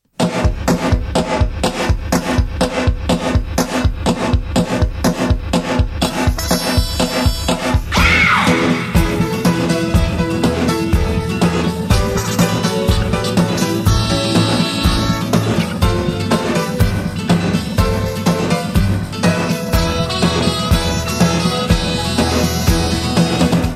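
A rough, unpolished song demo, an early draft sent to arranger Clary Fisher for orchestration, with a steady, driving beat, a sustained bass line and layered harmonic parts, playing loudly and continuously with no voices speaking.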